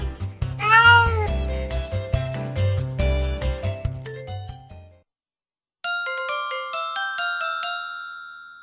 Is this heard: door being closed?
no